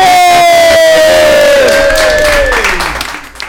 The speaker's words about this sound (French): Et je voudrais qu'on applaudisse ce charmant monsieur à 2h30 du matin.